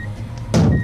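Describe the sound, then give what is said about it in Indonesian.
A car engine idles with a low rumble, then revs up suddenly and loudly halfway through as the car begins to reverse. “Kita coba mundur ya, saya.”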